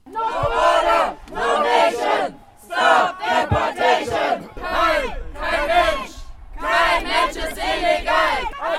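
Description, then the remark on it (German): A crowd of protesters on an airport observation deck chants anti-deportation slogans in unison ("Abschiebung ist Folter, Abschiebung ist Mord", "Refugees are welcome here") as deportees board a bus to the plane, loud rhythmic bursts of many voices separated by short pauses, repeating in a steady cadence. “Als die Abgeschobenen im Bus stiegen, der sie vom Terminal zum Flugzeug bringen sollte, wurden die Sprechchöre auf der Aussichtsplattform lauter.”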